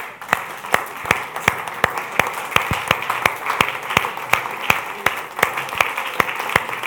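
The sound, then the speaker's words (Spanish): A church audience standing to give a giant round of applause to God: a dense, steady wash of many hands clapping, with sharp, evenly spaced claps cutting through in a brisk, regular beat for about seven seconds, loud and without talk. “Póngase de pie un momento y déle un aplauso gigante a Dios.”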